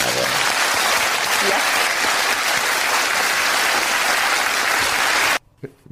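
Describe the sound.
Loud, dense applause from the audience of the talk show Skavlan after hearing the sentences given to three perpetrators. A steady wash of many hands clapping for about five seconds before it cuts off abruptly into near silence with a faint voice.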